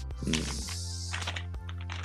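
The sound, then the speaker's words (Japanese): Crunching of Polinky corn snack chips, several crisp, irregular bites over a steady low hum, with no one talking. “ちょっとポリポリうるさいですね、誰か。”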